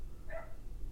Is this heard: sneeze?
no